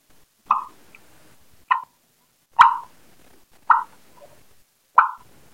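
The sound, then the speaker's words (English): Five sharp, evenly spaced turkey clucks made with a turkey call to gobbling turkeys, each a short hollow pop about a second apart, fairly loud against a quiet background with no talking. “I usually start out with a cluck. I go,”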